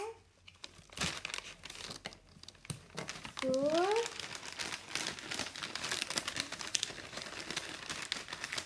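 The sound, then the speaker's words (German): Tesa adhesive tape squeals as it's pulled from the roll while wrapping a package, then crinkles and rustles while being handled, with a brief spoken word in the middle. “Ich brauche ein Stück Tesa.”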